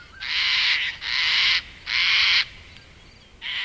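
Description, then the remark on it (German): White sulphur-crested cockatoos with yellow crests screech in harsh, raspy bursts on a farm stay in the morning, four loud calls in quick succession with short gaps between, the last one cut off, with no talking. “In diesem Falle sind das die weißen Kakadus mit diesem gelben Häubchen.”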